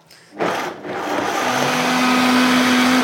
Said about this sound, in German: Weil ich die äh, Cashew-Hollandaise jetzt äh, finalisiere quasi. Die sind, ist jetzt im äh, Mixer.